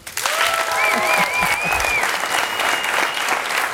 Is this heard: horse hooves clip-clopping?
no